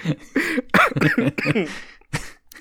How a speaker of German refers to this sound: nach einer halben Stunde Aufnahme zum ersten Mal gehustet